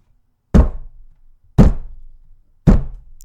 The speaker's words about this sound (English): three times on the deck with his boot heel.